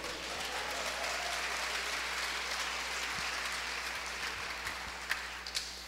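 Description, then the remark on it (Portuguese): An audience applauds the name of the Lord steadily, a dense wash of many hands clapping at an even loudness for several seconds, with a few sharper individual claps standing out near the end. “Você recebe essa palavra, aplauda o nome do Senhor.”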